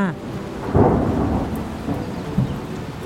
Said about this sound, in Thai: วันเวลาผ่านไปจนกระทั่งฝนแรกในรอบสามปีได้ตกลงมา